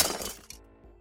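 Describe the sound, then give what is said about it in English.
A cricket ball, hit by a boy playing cricket inside a house, smashes into a television set's picture tube: a bright, harsh glass-shattering burst, a second sharp clink half a second later, then a low fading rattle of settling debris, with no voices. “They were playing cricket inside the house, and just as he walked in, Vivek slammed the ball into the television set, wrecking the picture tube.”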